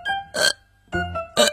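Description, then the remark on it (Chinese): A voice imitates a kitten hiccuping: two short, throaty, moderately loud gulps about a second apart, with a faint voiced tone trailing between them. “我现在老打嗝，真是没办法。”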